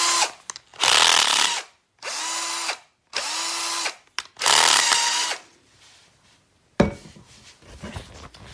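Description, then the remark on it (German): A cordless screwdriver whirs in four short, loud bursts, each about a second long with a high motor whine, followed by a softer rattling clatter at the end. “Das war ein Akkuschrauber.”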